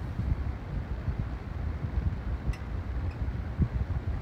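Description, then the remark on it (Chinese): A home electric fan turns at the end of the day, whirring steadily as it lulls someone to sleep. It makes a continuous low, breathy rush of moving air with slight fluctuations and no voices, holding an even, moderate level throughout. “而一天的结束， 是畅快洗澡的水声，以及几乎天天哄我入睡的电风扇的转动声。”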